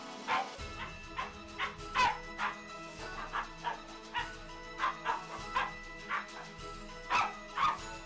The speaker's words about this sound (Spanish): ladró alegremente.